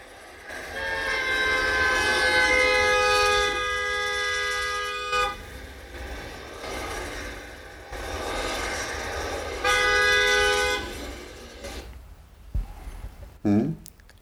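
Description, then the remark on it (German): A car horn blares at a cyclist on the road in two long, sustained honks, each lasting several seconds with a short gap between them, loud over steady road noise. “Klingt das noch nach einem normalen Überholsignalisieren?”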